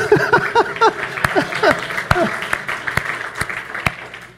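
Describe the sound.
Audience applause with sharp, evenly spaced claps standing out over a steady clapping bed, while voices chatter and exclaim underneath during the first couple of seconds.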